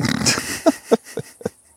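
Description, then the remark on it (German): A voice imitates an alligator growl: a rough, raspy snarl, then four short guttural grunts in a steady rhythm, fading slightly toward the end. “Und jetzt kommt gleich von hinten irgendeiner und zieht uns ins Wasser, so ein Alligator.”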